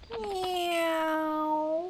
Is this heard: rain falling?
no